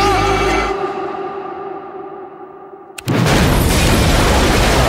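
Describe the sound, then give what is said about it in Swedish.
A loud explosion at the end of a radio drama booms and then rumbles away over a few seconds, followed by a sudden burst of harsh, roaring noise, like a second blast or heavy debris, with no voices. “Men vad skulle du dö av då? Explosionen.”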